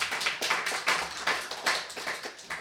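Brief applause: a small group clapping in quick, slightly uneven bursts for a few seconds at moderate volume, with no voices over it.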